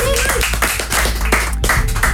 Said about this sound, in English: Um, welcome to our first guest this week on the show. He flew in all the way from Russia to bring us some huge news. Let me give a round of applause for Alexander Popov.